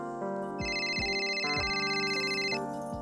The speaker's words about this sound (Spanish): Yo no escucho nada, espetó Rosa entre los claros timbres del teléfono.